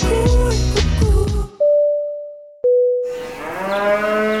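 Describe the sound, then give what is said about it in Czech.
A cow moos loudly, a long drawn-out low call that holds steady, then a second moo follows after a brief pause, with no talking. “Anglická vodka Black Cow se ručně destiluje a stáčí na farmě v srdci západního Dorsetu z mléka od kraviček, pasoucích se na svěže zelených pláních.”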